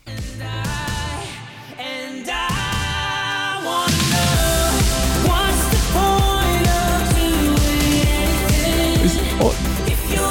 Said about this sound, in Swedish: Det, det här var ju lite, lite sån 80-talsdisco eh, i, i, i grund och botten.